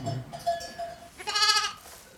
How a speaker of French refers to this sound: Sur les 130 brebis, j'ai entre 15 et 20 sonailles.